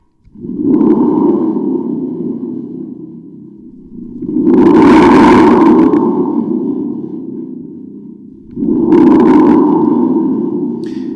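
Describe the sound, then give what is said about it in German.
Three loud, rumbling booms from a homemade spring-drum thunder tube, played to make a thunder sound effect, each swelling quickly and trailing off in a wobbly, metallic roar, one after another with no talking. “ich brauche Donner, dann mache ich mir den jetzt einfach selbst.”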